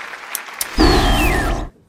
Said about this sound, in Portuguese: O público não para de aplaudir, nem dá pra gente conversar.